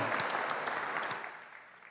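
An audience applauds with steady, dense clapping that starts loud and gradually fades over about two seconds. No voices are heard.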